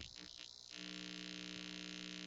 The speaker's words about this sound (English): You don't hear that? I hear it. Yeah, it sounds like you have a dildo on your desk. Something is vibrating.